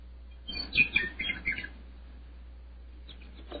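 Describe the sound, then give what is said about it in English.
Birds chirp and twitter in a quick, busy burst for about a second, then fall quiet before a few faint chirps return at the end, all over a low steady hum. “The sun was shining, the birds were singing”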